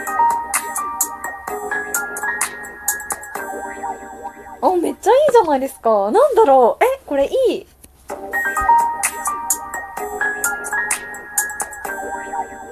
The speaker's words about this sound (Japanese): え、格段に私たちのラジオは上がりますね。こりゃあいい。イントロが来たぞ。イントロじゃないな。BGM が来たぞ。